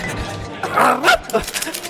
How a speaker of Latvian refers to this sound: Veltīs man īsu rējienu